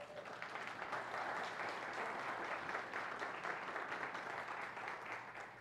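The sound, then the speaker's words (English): A church audience applauds together for Pastor Dan's 10-year anniversary, a steady dense wash of many hands clapping that holds at an even loudness for several seconds without any talking over it. “I just wish he was here to have heard that applause.”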